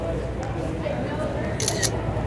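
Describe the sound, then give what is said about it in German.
A couple of sharp camera shutter clicks snap in quick succession near the end, set against a steady, dense murmur of background voices in a public place. “Ich höre Fotogeräusche, ich höre Tippen.”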